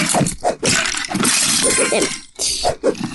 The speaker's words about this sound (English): Punch that box to smithereens.